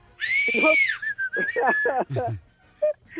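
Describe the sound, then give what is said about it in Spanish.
A person loudly imitates an impatient crowd's whistling, one long shrill whistle held for about two seconds over voiced vocal sounds, followed by a few brief vocal bursts. “Empieza, pasan cinco minutos, diez minutos, y la gente se empieza a chiflar, a desesperar.”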